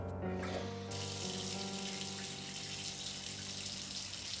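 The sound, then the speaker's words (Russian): A shower in a shower room is turned on after a brief pause, and water then pours in a steady, loud hiss to the end, with a faint low hum underneath. No one speaks. “С трудом осмысляя все случившееся, чувствуя себя вспотевшим и каким-то испачканным, я зашагал в душевую.”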